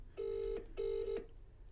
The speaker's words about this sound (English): Here we go. It's ringing. Is it ringing? It's on speaker.